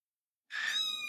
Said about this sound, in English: A, a meow was heard, and in the distance, I saw a black cat staring at us. It was the cat that Pranati used to go on about.